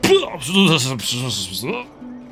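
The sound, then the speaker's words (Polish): A voice loudly imitates a drunk person retching and vomiting against a wall, a couple of harsh, gagging heaves with strained, gurgling tones, forceful, trailing off into a low groan. “po czym odpiera się o mur i z bardzo głośnym, e, słyszanym pewnie w całym mieście, wywala, o, opróżnia swoje, że tak powiem, bebechy na pobliską ścianę.”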